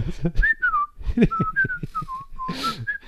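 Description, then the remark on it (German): A person whistles a wavering, sliding tune for about three seconds, imitating the thin whistling noise made while urinating before the stream comes, with soft breathy and low background sounds underneath. “der pfeift dann so ein bisschen, bis es, äh, bis der Urinstrahl kommt, dann ist es eher so Gurgel.”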